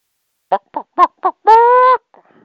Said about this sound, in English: number two, clucking uh, chicken.